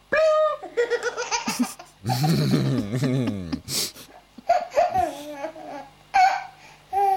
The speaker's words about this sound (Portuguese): E claro, um clássico, um bebê ri.